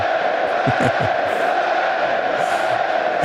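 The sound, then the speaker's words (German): A large crowd roars and cheers continuously in a dense, loud wash of voices, with a few louder shouts rising out of the din as the audience does a wave. “Oh, die Welle ist aber ganz schön laut.”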